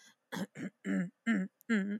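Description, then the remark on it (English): Someone clears their throat in five quick, voiced rasping bursts, the later ones longer and fuller, separated by brief pauses with no other talk. “But like clearing my throat is like.”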